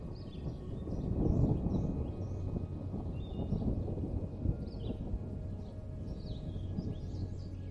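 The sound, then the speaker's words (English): A low, rolling rumble of distant thunder swells early on as a light afternoon rain shower approaches a cabin. It keeps grumbling steadily underneath, while small birds chirp and twitter lightly above it throughout. “And just when you thought this place couldn't possibly get any more relaxing, you hear a gentle rumble of thunder off in the distance as a light afternoon rain shower makes its way towards the cabin.”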